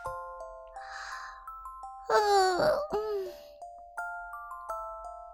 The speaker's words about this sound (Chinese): 然后她爬上床，打了一个大大的哈欠。